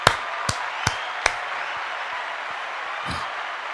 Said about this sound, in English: Let's clap it up.